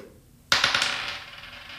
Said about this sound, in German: Okay, dann ähm, würde ich sagen, du darfst nochmal würfeln.